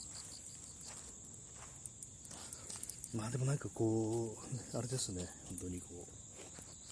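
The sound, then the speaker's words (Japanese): Insects chirp steadily in nearby grass, a continuous high-pitched trilling that runs the whole time while a man talks quietly over it. “いい具合にこう、もうすぐ近くの草むらからも虫の声が聞こえてくるという感じで、まあ、あの、なんていう虫かね、ちょっとわかんないんですけども”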